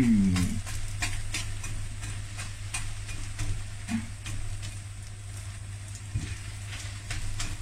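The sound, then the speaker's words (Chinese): Hot oil sizzles and crackles steadily as glutinous rice balls deep-fry and are poked constantly until soft and golden, with scattered sharp pops and light scraping over a constant low hum; no one speaks. “我们把它炸到松软之后，金黄色，就可以吃了。”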